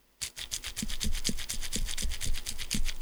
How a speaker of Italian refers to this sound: ascolti questo rumorino per capire se, perché è un giochino che è all'interno di questo scatolo, no? Per capire se le suscita qualcosa, ascolti.